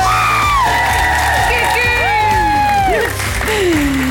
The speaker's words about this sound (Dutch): Van alle huidige presentatoren houdt zij het al het langste vol. Dus daarom een applaus voor haar moed en zelfopoffering. Want hier is Kirsten Lemaire.